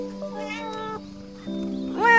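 A pet kitten named Baozi meows three times as its owner comes home: a long, steady cry, a brief pause, then a second meow running straight into a louder, rising one. No voices, just the bright mewing.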